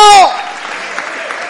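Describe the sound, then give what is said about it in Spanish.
A brief raised voice gives way to steady applause from an audience during a sermon, offered to the Lord, a dense wash of many hands clapping at an even, moderate loudness that continues to the end. “Dele un aplauso al Señor, aleluya, aleluya, porque Dios va a hacer algo grande como usted en el desierto.”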